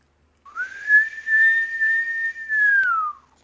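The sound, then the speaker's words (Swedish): A single sustained human whistle holding a steady pitch for nearly three seconds, rising slightly at the start and sliding down at the end, clear with no talking. “Jag fick inte till visslingen, jag gör en till.”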